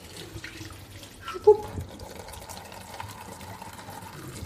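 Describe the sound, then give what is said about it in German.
Rinse water from washing tea is poured into a sink drain, splashing and gurgling in a steady pour with a brief louder slosh near the start, with no talking. “Und jetzt gießen wir das einfach unterrühren in den Ausguss.”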